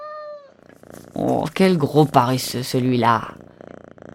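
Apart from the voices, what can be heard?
cat purring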